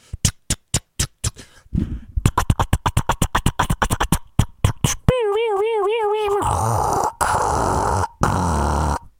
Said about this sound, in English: Atari sound effects.